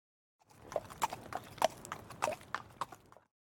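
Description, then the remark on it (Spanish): Hooves of a horse or mule ridden by the Sombrerón clip-clop in a steady, moderately paced rhythm, about a dozen sharp knocks over a few seconds, clear with no voices. “Al sombrerón le gusta montar a caballo o en mula.”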